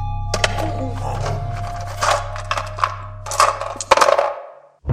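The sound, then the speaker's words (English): Dice are rolled to determine an encounter, rattling and tumbling across a hard surface in a burst of sharp clicks and clatters over several seconds, set against a steady low hum, then stop abruptly. “The dice may show what it is and where it comes from.”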